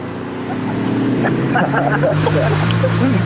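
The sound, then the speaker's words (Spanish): A voice mimics a car engine starting up and pulling away, a steady buzzing drone with a rising, revving pitch, loud, lasting a few seconds. “Qué bueno que arranca bonito.”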